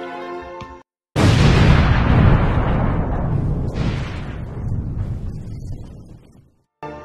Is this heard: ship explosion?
yes